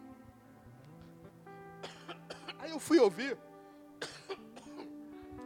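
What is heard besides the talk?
coughing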